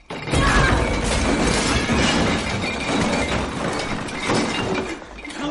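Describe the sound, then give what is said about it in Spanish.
A pile of boxes is thrown down on top of a man, crashing in a loud, sustained jumble of thuds, rattles and scraping clatter that churns on for several seconds before easing slightly at the end. “Silvia le tira encima una pila de cajas.”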